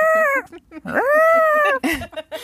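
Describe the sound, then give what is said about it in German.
A person's voice imitates an eagle's cry: two long, shrill, wavering screeches, the second rising then falling, followed by a few shorter squawks, loud. “Was ist das? Der Adler.”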